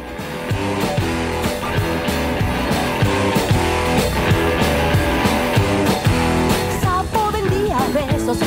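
An upbeat instrumental song intro plays at full volume, with a steady driving beat, bright layered instruments and a lively melody rising near the end. No one speaks.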